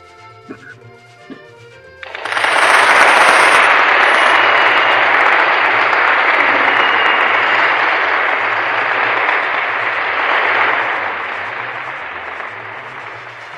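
After a brief quiet moment, loud applause from a crowd bursts in and continues steadily, a dense, sustained clapping that stays strong before easing slightly toward the end.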